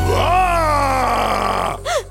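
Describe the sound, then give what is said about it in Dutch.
A long, drawn-out monster roar, voiced and groaning, sliding slowly downward in pitch, then a short, higher rising-and-falling snarl at the end. Loud, with no talking, and it sounds like a voice performing the roar. “Hoort je dat gebrul? Ja, dat moet een monster zijn.”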